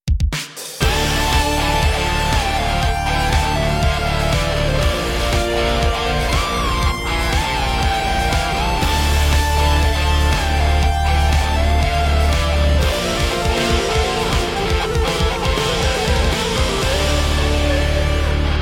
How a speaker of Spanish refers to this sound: La gente acabó de escuchar dos músicas de intro. ¿Cuál es la real? Ustedes tienen que decidir cuál fue la, verdad.